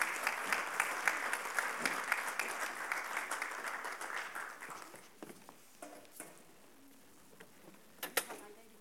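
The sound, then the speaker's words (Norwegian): An audience applauds with a dense, steady patter of clapping that gradually thins and fades, leaving a few scattered claps and light movement noises toward the end. “Vi gir dem en applaus, for vi heier på dem.”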